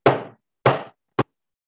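Three firm knocks on the wooden door of a cabin, knocking again after no answer, each about half a second apart, the first two booming and ringing briefly, the last a shorter, sharper rap, with no voices.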